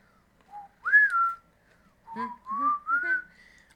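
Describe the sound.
A cheerful tune is whistled in short, clear phrases, with notes sliding smoothly up and down. Two bursts are separated by a brief pause, and no one speaks.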